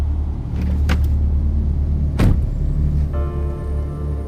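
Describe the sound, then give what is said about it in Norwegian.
A large truck engine rumbles steadily as the truck is parked outside a tunnel, with two sharp mechanical clunks and then a rising whine of machinery near the end. “Jens Petter og kollegaen parkerer lastebilen på utsiden av tunnelen.”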